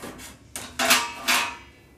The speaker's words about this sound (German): Die beiden Löffel, die ich gebraucht habe für Honig und Joghurt. Und das Messer für die Früchte. Und die Spülmaschine, genau wie mein Schneidebrettchen.